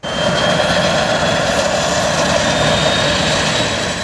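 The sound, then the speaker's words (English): A Harbour Air floatplane engine drones steadily, its whining tone riding over a low, continuous rumble. Loud, the sound holds at constant strength throughout without fading or changing pitch. “What if the constant whine and rumble of float planes suddenly just stopped?”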